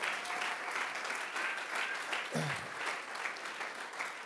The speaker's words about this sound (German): Ja, komm, lass uns Gott mal einen Applaus geben.